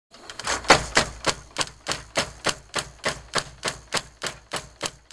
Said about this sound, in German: Mehrmals pro Sekunde schlagen große, schwere Hämmer auf ein kleines, in Leder eingebundenes Paket, die sogenannte Quetsche, ein.